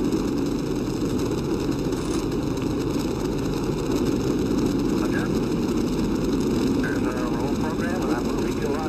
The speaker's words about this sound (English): Six, five, four, three, two, one, zero. All engines running. Commit. Liftoff. We have liftoff at 11 a.m. Eastern Standard Time.